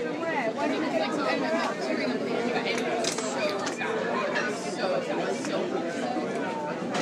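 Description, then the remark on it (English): Dense crowd chatter of many people waiting in a long line, a steady murmur of overlapping conversations with no single voice standing out, plus occasional faint clicks and rustles. “All kinds of conversations to be found here.”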